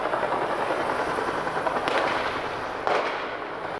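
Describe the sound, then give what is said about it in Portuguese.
Two sharp gunshots crack out about a second apart over a steady, loud wash of background noise, with no voices, during a police operation shootout near a school in the Complexo da Maré, Rio de Janeiro, Brazil. “Esta escola ficou no meio do fogo cruzado.”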